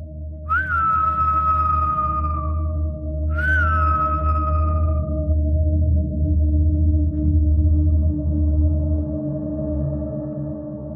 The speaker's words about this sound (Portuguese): Assim que começamos a descer, o assovio começou novamente.